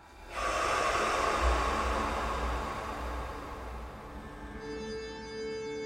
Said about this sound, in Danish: Vi starter med at trække vejret dybt igennem næsen. Holder vejret. Får det helt ned i maven. Og puste ud af munden, stille og roligt.